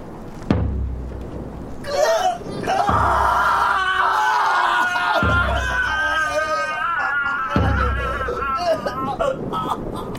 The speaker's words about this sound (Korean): 다음 날 이른 아침부터 한성부에서는 비명 소리가 계속된다. 간밤에 잡은 살인범에 대한 취조가 살벌하다.